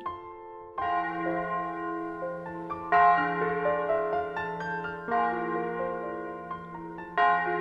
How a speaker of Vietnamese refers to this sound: chuông nhà thờ rung từng hồi